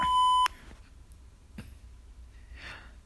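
A loud, steady censorship bleep tone sounds for about half a second at the start, covering a spoken dirty joke, then cuts off abruptly, leaving near silence with a few faint breaths and soft rustles.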